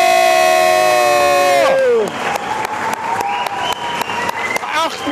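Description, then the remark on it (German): A loud ice hockey crowd chants and cheers, singing "la, la, la", opening with a sustained, droning tone that slides downward, then a roaring mass of voices punctuated by steady, rhythmic clapping. “Und hört euch die Chöre an.”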